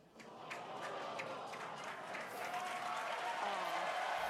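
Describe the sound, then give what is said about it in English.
A large crowd cheers and applauds together at a rocket launch, a dense wash of clapping and excited voices that swells steadily louder over a few seconds. “It's so funny hearing them all cheering the end.”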